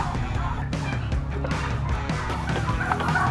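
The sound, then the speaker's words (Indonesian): Turkeys cluck and gobble in a steady, busy stream of short, loud calls, with a noisy farmyard-like background throughout. “Ayam kalkun atau yang dikenal dengan sebutan turkey ini hampir selalu hadir dalam perayaan Thanksgiving dan Hari Raya Natal di benua Eropa dan Amerika.”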